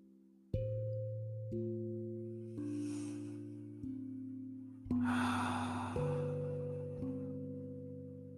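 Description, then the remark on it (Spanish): Slow, deep breaths, two long airy inhales and exhales, drift over soft, sustained music chords that shift gently. No one speaks. “Mientras yo te acompaño con mi respiración y con mis palabras.”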